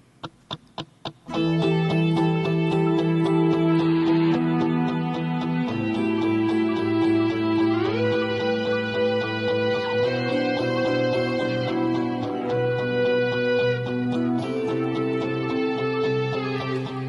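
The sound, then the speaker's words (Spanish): Four quick clicks count in, then loud, dense music kicks in: sustained, heavily processed chords that shift every few seconds, steady and full throughout, with no singing. “con la mejor de las músicas, desde luego una música que nos emociona, nos hace sentir y lo hace nuestro siguiente protagonista que suena así.”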